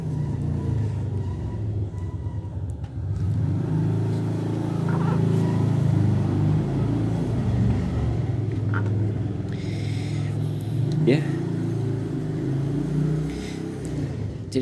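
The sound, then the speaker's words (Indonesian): A motorcycle engine rumbles steadily, swelling slightly louder midway as it goes past, its low drone filling the whole stretch with no one talking. “bentar ada motor lagi nih”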